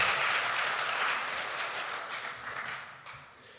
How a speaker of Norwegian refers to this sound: Kan vi gi det en liten klapp?